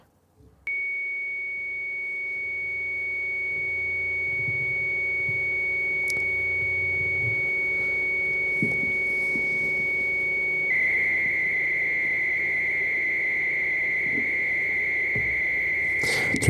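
A steady, piercing electronic carrier tone holds for about ten seconds, then turns into a buzzing, hissing data screech, like a dial-up modem handshake, loud and continuous with no voices. It is a track by a synthpop band made of dial-up modem data tones.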